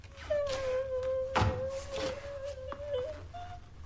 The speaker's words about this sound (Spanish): Ella se tira contra la puerta.